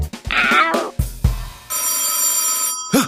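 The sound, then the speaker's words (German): A bright, metallic telephone bell rings in one sustained burst lasting about a second, preceded by a few short, wavering animal-like cries and followed by another brief cry. “Geh ran und schicke sie auf den Hinterhof.”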